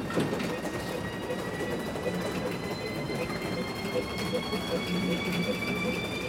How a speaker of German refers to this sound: Der Lift wird jetzt gerade per Hand noch hochgekurbelt. Das ist alles Handarbeit.